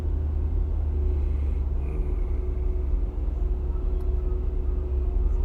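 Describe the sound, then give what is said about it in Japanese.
Steady, heavy low rumble of road noise inside a moving car in a heavy traffic jam, with a faint engine hum running underneath throughout and no one talking. “この私が車に乗ってる様も含んで映画にしないとダメですね不思議ですねっていうところでちょっと大渋滞だけどこれなんかおかしいなっていう感じですね”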